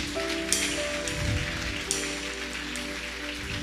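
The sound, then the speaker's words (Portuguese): A church audience applauds the Lord steadily, a dense crackling wash of many hands clapping at once that holds at a constant loudness throughout, with a few sharper claps standing out and no voices. “Aplauda o Senhor.”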